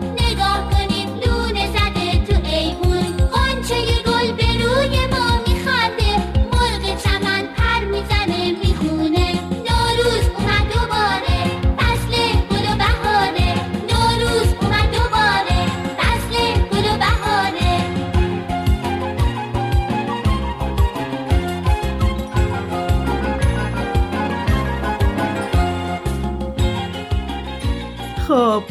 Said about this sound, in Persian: امیدوارم از شنیدن این آهنگ بهاری حسابی لذت برده باشید.